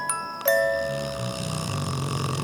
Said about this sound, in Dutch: De deur op slot, de lichten uit. Motor maakt een snurkgeluid. Slaap maar fijn, kiepwagen.